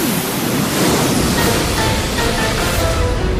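Steady, loud roar of ocean surf washing against the shore, a dense continuous rush of breaking water with no pauses and no voices.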